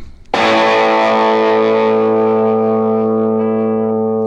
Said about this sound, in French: Alors attends, c'est dans la majeure déjà. Hein. la guitare, on dirait une Gretsch 6120 euh, de 1957 ou 59. Tu peux remettre l'accord, s'il te plaît Oui, c'est ça, L'ampli sonne comme un Fender 3x10 Bandmaster.